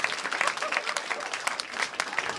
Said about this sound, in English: Clap it out.